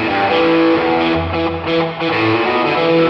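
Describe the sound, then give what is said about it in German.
A loud, heavily distorted electric guitar plays sustained, dense chords with a roomy ambient wash from the Studio One Ambience effect at its default setting, continuous for a few seconds with no voices. “Deswegen schieben wir den einfach mal hier voll rein, dann kannst du hören, was die Ambience default macht, nämlich dieses hier.”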